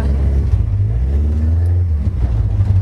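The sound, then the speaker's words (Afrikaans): A small kart engine drones loudly as the kart goes onto a slightly wet track for two laps, its pitch climbing briefly as it revs before settling back into a steady, rumbling idle. No voices are heard. “Okay, ons gaan nou op die baan op ons kan twee laps doen sê hulle so”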